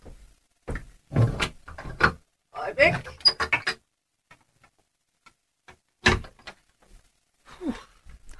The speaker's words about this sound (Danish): Øh, øjeblik, jeg skal lige have åbnet et vindue her. Øjeblik. I kan følge med i, at jeg piller lidt ved nogle hasper her, men...